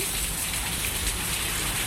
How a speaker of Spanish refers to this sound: Nos están llegando noticias de que en Ayamonte, vamos a escuchar, nos han mandado un audio de lo que está pasando. Aquí veis cómo entra el agua de la calle, a mi cancela, a mi casa.